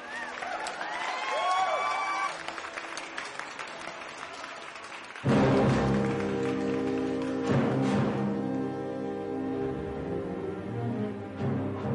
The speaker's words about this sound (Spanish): Un aplauso para Maximilien Robespierre.